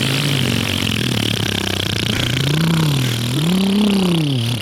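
A loud motorcycle engine rumbles steadily throughout, its pitch swelling in two revving surges toward the end, with no voices.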